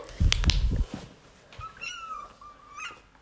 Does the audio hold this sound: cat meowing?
yes